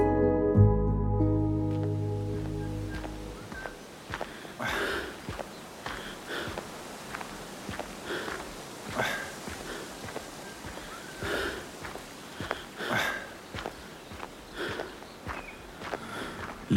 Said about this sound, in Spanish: Tus pasos indecisos suenan detrás de mí. El terreno accidentado ha sido todo un desafío.